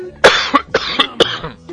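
A loud sneeze bursts out, followed by several shorter, sharp explosive bursts in quick succession, with no talking.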